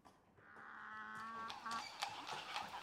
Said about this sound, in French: Et voilà qu'arrive une carriole tirée par de petits ânes.